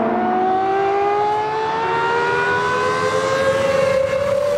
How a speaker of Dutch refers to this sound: Dat is toch anders dan een huilende V12, hè?